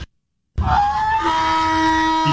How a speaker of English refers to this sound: Our breaking news donkey, very sensitive. well, he's got those huge ears.